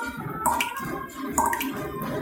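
Water drips from a leaking drain: two distinct, bright plinks about a second apart, each with a short ringing tone, over a steady hiss of running water and background noise. No one speaks.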